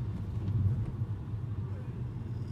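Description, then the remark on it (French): A car engine rumbles low and steady, idling and shifting slightly as the car edges into a parking spot beside a post, its driver on the phone, with no voices over it. “Je regardais juste si cette voiture qui voulait se garer avec le gars au téléphone allait se prendre le poteau ou pas.”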